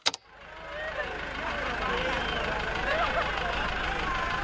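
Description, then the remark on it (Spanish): A tractor engine rumbles steadily, a low droning idle with a rough mechanical clatter, preceded by a couple of sharp clicks at the very start. “Pues al final aprender a conducir un tractor nos va a resultar útil.”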